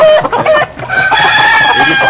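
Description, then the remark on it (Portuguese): Several chickens cluck and squawk on a rainy day, a dense, continuous chorus of overlapping calls with sharp, high-pitched bursts throughout. “Dejaci tá vigiando as galinhas”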